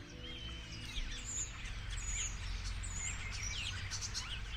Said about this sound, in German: Die Stare, die sich im nördlichen Oderbruch zum Schlafen zusammenfinden, sind Individuen jeden Alters,